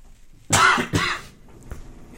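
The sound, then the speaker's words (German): Two quick, loud, harsh coughs in a row, the second following right after the first, then quiet with only a faint click afterward. “das ist doch passiert, jetzt muss ich doch husten.”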